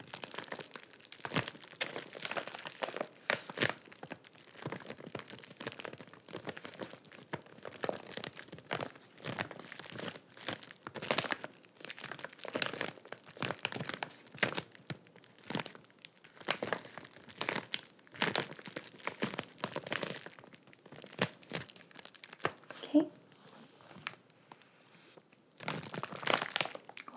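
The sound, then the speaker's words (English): A medium-sized padded bubble wrap bag is crinkled and squeezed, giving a long stretch of dense, irregular crackling and rustling bursts with no talking. “This one is again uh, one that I highly recommend because it is so great for traveling because of the bubble wrap.”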